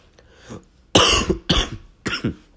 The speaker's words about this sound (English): Excuse me, there's the first one. Uh, so I wonder what the over under is uh, for, for how many times I'm going to cough in this episode. Hopefully, not too many.